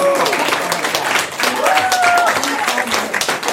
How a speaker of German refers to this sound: Das verdient Applaus.